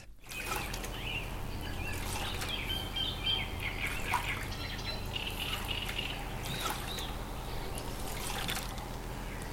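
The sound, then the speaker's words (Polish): Water splashes and trickles in a small bowl, mixed with recorded bird calls chirping intermittently over a steady low background hum; a homemade sound effect; no talking. “Do wody w misce dołożyłam ptaki z mojej bazy, szybko zmiksowałam i oto efekt.”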